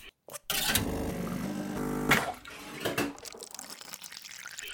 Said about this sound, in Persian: صدای دستگاه هایی که تو محیط اطرافمون کار میکنند مثلا صدای دستگاه اسپرسو که توی کافه باش قهوه درست میکنند